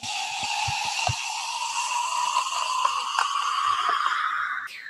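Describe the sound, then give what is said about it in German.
A steady hiss of beer pouring into a glass from a freshly uncorked bottle, its tone slowly rising as it fills, with a few soft low bubbling pops early on before it stops abruptly; the honey-brown golden beer forms a white, coarse-pored foam. “Also ich hoffe mal, dieses Geräusch haben die Hörer jetzt auch schön mitbekommen, wie der Schaum sich hier entfaltet.”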